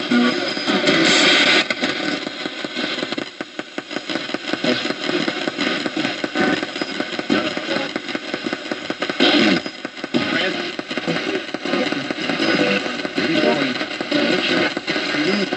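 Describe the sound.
A Radio Shack 12-587 radio rapidly sweeps through stations, producing continuous loud static and crackle with brief choppy bursts of voice fragments and noise flickering in and out throughout.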